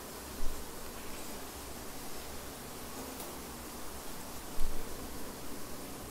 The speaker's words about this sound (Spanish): Aprovecho ahorita que está lloviendo para relajarse. Mm. No siempre se tienen estas oportunidades de tener la lluvia mientras le estoy cortando la barbita.